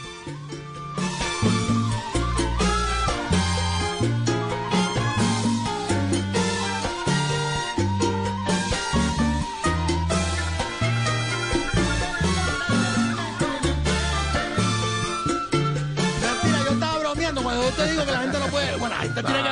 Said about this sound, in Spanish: Y bueno, estuvo en presencia de ellos en el Queen Elizabeth Hall, precisamente presentándose a esta orquesta única, de una combinación excelente, música escocesa con el son cubano. Es una cosa linda y suena así.